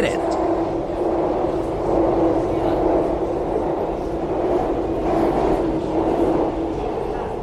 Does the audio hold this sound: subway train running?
yes